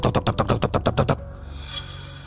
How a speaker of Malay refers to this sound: Waktu saya tengah tidur dekat ruang tamu masa tu Tengah nyenyak tidur Saya terkejut dengan ketukan pintu yang sangat-sangat kuat